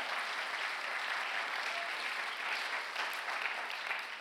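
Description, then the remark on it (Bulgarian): A church audience applauds during a sermon, a dense wash of many hands clapping steadily at an even level for several seconds with no voices rising above it. “О, ако ръкопляскаш, ръкопляскай, като че наистина вярваш в това, което проповядвам.”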